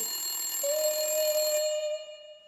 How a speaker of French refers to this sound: Hurla le réveil.